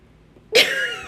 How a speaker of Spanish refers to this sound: Perdón, me estaba ahogando.